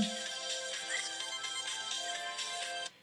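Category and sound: signal or alarm, phone ringtone ringing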